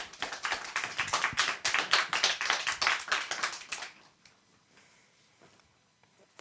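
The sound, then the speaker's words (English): A burst of audience clapping welcoming a speaker at an event live-streamed on Facebook, many hands in rapid, irregular rhythm, fairly loud for about four seconds before fading to near silence with a few stray claps at the end. “Applause, please.”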